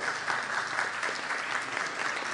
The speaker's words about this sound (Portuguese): Ela é presidente, palmas para ela, gente, por favor.